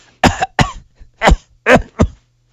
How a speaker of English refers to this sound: Cough again.